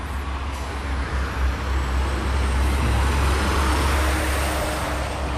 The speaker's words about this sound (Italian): Vediamo ora c'è un camion, di solito i camionisti sembrano più simpatici.